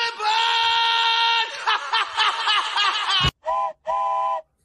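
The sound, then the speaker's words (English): A loud steam train whistle sounds a long steady blast, then wavers and warbles, followed by a sharp clack and two short, clipped toots. “the train is leaving the station of the discharge depot”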